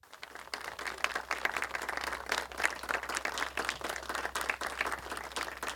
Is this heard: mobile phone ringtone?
no